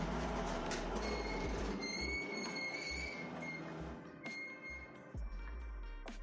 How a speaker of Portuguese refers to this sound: Aí, aquela, aí faz aquele barulho de porta pesada passando, assim, abrindo pros lados, né? Abrindo no meio, assim, para cada lado.